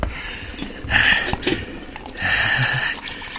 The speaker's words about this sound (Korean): 끓는물 붓고 3분.